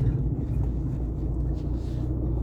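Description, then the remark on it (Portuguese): Steady low-frequency engine rumble and road noise from inside a moving silver 2004 Palio Fire car in Porto Alegre, continuous and fairly loud, with a faint hiss of air and tires throughout and no one talking. “E a ideia desse podcast é justamente eu falar enquanto eu estou dirigindo no meu Palio 2004 Fire Prata”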